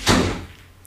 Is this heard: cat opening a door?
yes